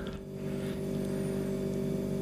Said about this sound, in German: Kühlschrank wieder an? Ja. Ja, okay, dann ist das Brummen. falls ihr das Brummen hört,